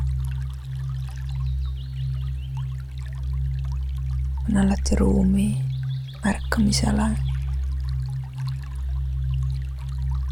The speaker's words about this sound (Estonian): ja selles pausis voolava vee keskel